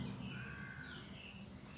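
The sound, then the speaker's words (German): A steady, low rumble of an airplane passing overhead, with a faint high whine that slowly shifts in pitch. The sound is quiet and continuous, with no voices. “Das ist ein Flugzeug, ja genau.”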